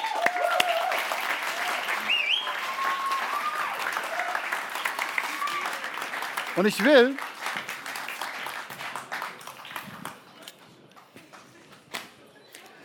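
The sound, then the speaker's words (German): A crowd applauds with dense, crackling clapping that holds steady, then thins and fades out toward the end while a man begins speaking over it. “Fetten Applaus.”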